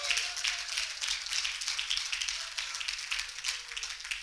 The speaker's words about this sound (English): Now, would you clap your hands to the Lord and give him praise before you're seated? Hallelujah. Or would you clap your hands a little bit louder?